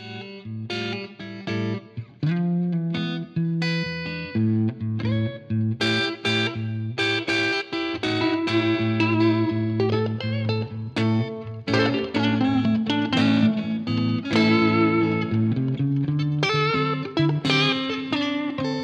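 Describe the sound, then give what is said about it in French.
Two musicians jam together on two distorted electric guitars with heavy effects, chugging low riffs under bright, sustained high lines, loud and continuous with choppy rhythmic stops early on. “… ont fait un petit bœuf euh, à guitare électrique avant le début du podcast et nous vous offrons quelques passages.”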